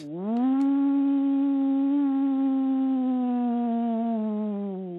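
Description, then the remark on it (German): A man imitates a wolf howl over the telephone in one long, sustained, steady tone that swoops up at the start and sags slightly at the end, sounding thin and narrow. “und dann hat er da den Ruf der Wölfe imitiert, damit die antworten.”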